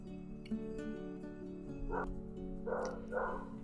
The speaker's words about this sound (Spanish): Bueno, vamos a seguir aunque se escuchen de fondo los perros y el camión de la basura